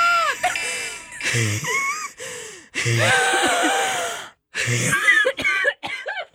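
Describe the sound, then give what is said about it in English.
Breathless laughter with an asthmatic wheeze, broken into wheezy, high-pitched squeaks and sharp gasping inhales, coming in uneven bursts for several seconds with brief pauses between fits. “I think this is the first time I've actually heard the asthmatic wheeze come out, so I know how hard that was.”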